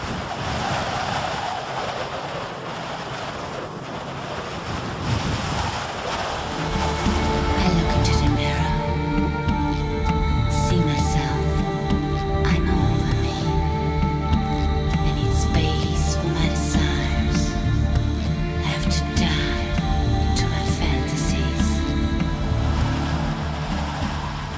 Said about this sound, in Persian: انقدر باد شدید بود که موتور با یه زاویه کج ما مجبور بودیم 100 تا بریم یعنی باد موتور رو میخوابوند هی و ما مجبورم بودیم بریم باید از این منطقه عبور میکردیم